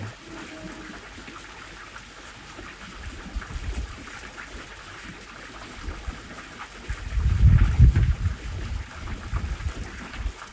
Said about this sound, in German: Wenn du mit deinen Gedanken abdriftest, dann lass dich von dem Wind, den du hier während der Meditation in der Aufnahme hörst, immer wieder daran erinnern, zu deinem Atem zurückzukehren.